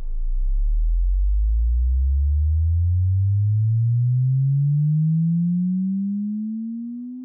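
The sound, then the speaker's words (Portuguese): A pure test tone glides steadily upward from a deep low hum to a higher pitch over about seven seconds, loud and continuous, fading slightly at the end with no voices. “Vamos ouvir um pouquinho das frequências que somos capazes de perceber.”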